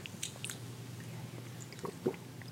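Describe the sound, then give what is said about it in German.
Quiet mouth sounds of someone taking a sip of coconut water: a few soft wet smacks and a small gulp, with faint background hum and no talking. “Ich nehme einen Schluck.”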